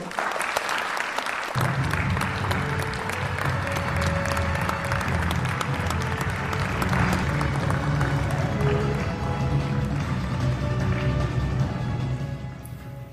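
An audience breaks into loud, sustained applause that swells after a brief quiet start and continues steadily, dense clapping spreading across the whole clip, with a low rumble of crowd noise beneath, welcoming magician Maxim Maurice to a magic show.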